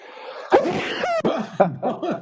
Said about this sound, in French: Toi, t'as éternué du côté de ton micro. Moi, j'ai éternué de l'autre côté.